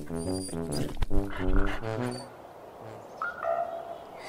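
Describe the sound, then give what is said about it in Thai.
A farmer's dog, kept to guard the house, barks several times in quick succession, loud, with drawn-out, tonal yelps over roughly two seconds, followed by quieter background noise and a faint chirp. “แล้วก็ได้เลี้ยงสุนัขอีกตัวหนึ่งไว้เพื่อเฝ้าบ้าน”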